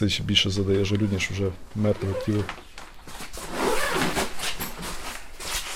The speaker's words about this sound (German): Schulha geht in die Hocke und öffnet den Reißverschluss eines Leichensacks